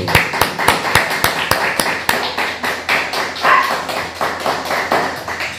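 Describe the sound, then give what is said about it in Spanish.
A crowd applauds steadily for several seconds, with sharp individual claps standing out in an uneven rhythm over a dense bed of clapping. No one speaks. “Un fuerte aplauso.”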